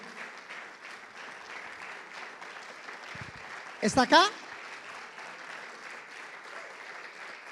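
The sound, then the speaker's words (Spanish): A crowd claps steadily and continuously throughout in applause for the Lord, a dense, even patter of many hands, with a brief loud voice calling out over it near the middle. “Junte sus palmas, dele más fuerte el aplauso al Señor.”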